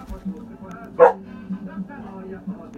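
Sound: dog barking on command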